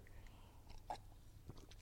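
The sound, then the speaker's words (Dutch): A quiet sip of water, with soft wet mouth clicks and a brief swallow, over a low background hum, with no talking. “Even een slokje water.”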